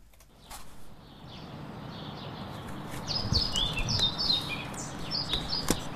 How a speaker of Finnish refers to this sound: Kirjosieppo on saapunut. Mä äänitän kirjosieppoa vähän kauempaa